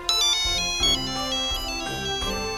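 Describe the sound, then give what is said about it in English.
A bright, tonal future-message notification ringtone from a time tablet disguised as a wristwatch plays a quick melodic jingle of several chiming notes in a steady rhythm, loud, with no talking over it. “Zap is just about to head downstairs when a future message notification comes in.”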